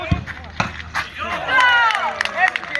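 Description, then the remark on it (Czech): A football is struck hard outdoors in a pre-season friendly against Jankov, with a few sharp impacts as it hits the goalpost and drops into the net, followed by players shouting and cheering. “I mikrofon zaznamenal jeho bombu. Míč se odrazil od tyče přímo do sítě.”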